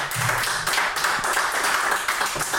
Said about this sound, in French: Je pense que ça mérite des applaudissements. ça va l'encourager.